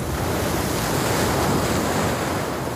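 Choppy sea waves churn and splash continuously, loud, with a steady rushing wash and gusts of wind buffeting the microphone; no voices.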